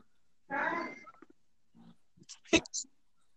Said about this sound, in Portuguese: Quem é esse dog aí? Fala. um dog, velho. Ah, é cachorro do vizinho.